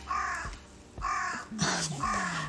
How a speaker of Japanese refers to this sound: カラスの声が入ってますねきっと。あのねめちゃくちゃ今外はとってもいいお天気なので窓を開けて今収録しています。